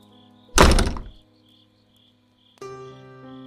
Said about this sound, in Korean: 화장실 문이 갑자기 꽝 하며 세게 닫히고